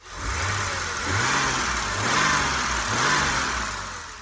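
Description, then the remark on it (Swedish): The 200-horsepower 3.2-litre straight-six engine of a silver BMW 633 CSI with manual gearbox revs repeatedly, rising and falling in pitch three or four times in a rhythmic pattern over a steady mechanical drone, with no voices present. “Modellen efterträdde 3.0 CSI och hade nu moderniserats med en större rak 3,2 liters sexa på 200 hästkrafter.”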